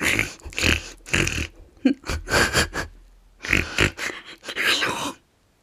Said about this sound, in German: Alles, was man hört, ist ein statisches Knistern und ein Atmen.